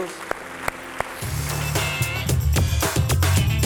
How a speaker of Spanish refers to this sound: Amén. Amén. Le da un aplauso al Rey Jesús.